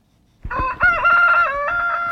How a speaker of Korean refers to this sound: 닭소리예요. 닭소리. 일부에 나가는 노래 가운데 일부입니다 이 소리가 섞여 있는 노래가 있어요.